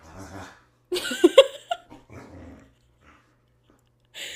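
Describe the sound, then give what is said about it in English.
A female dog named Rue growls and whimpers in short, uneven bursts, a low grumble giving way to a few louder, strained whines, then a quiet stretch before one last brief vocal sound. She is acting up because it is almost dinner time. “So, absolutely not clear on why I cannot eat my tail and eat my bed.”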